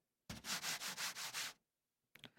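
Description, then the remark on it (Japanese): Loud rustling of stiff bashō paper, a traditional paper from Ryukyu (Okinawa), on an Okinawan fan, being rubbed or crumpled in about six rhythmic pulses, a brief pause, then a shorter burst of crinkling. No voices. “これは芭蕉紙という紙で琉球に伝わる伝統的な紙らしいんですけれども”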